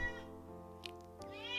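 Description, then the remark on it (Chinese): A pet cat meows insistently, one long drawn-out cry followed by a second meow that rises in pitch, both loud with clear harmonic tone. No one speaks. “但没有我现在讨厌我这只猫这么讨厌，请你安静。”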